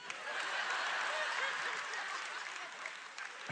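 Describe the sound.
An audience claps steadily during a preacher's sermon, a dense wash of many hands at a fairly even loudness throughout, with a few scattered voices mixed faintly into the applause.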